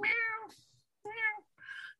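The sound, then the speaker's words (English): A kitten trapped inside a Pepsi soda vending machine at a Walmart in Morristown, Tennessee, meows three times in quick succession, fairly loud. Each call is a drawn-out, tonal cry, the last one shorter and higher-pitched, with no talking around it. “Somebody heard a kitten meowing”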